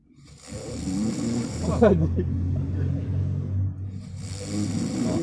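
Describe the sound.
A voice imitates snoring: a loud, raspy, rattling drone held for several seconds, sputtering like the engine of an old orange bajaj motor-rickshaw idling.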